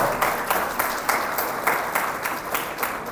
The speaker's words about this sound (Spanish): Denle a Jesús ese aplauso, por favor.